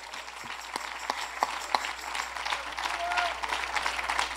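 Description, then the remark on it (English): An audience claps their hands to the Lord in worship, a dense wash of many overlapping claps with a few sharper individual claps standing out, steady and moderately loud throughout, with faint voices mixed in. “Let's clap your hands to the Lord right now.”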